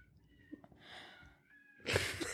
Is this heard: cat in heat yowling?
yes